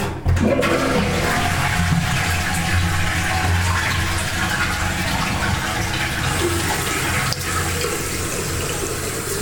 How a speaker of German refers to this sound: Äh, ja, ein bisschen Atmosphäre. Gleich die Klospülung. So nimmt der LS3 halt auf.